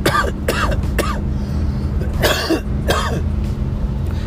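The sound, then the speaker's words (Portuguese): A person coughs about five times in harsh bursts, three quick ones followed by a pause and two heavier, raspier coughs, over a steady low hum. “Essa tosse lembrou sua mãe, né?”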